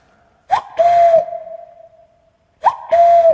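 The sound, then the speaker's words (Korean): A person imitates a cuckoo call twice with the voice as a greeting to a caller on the phone, each time a short higher note followed by a long, drawn-out lower hoot. The voice is loud, with nothing else in the background. “우리 4 1 0 8에 제가 뻐꾸기로 인사드릴 테니까 닭으로 인사해 주세요”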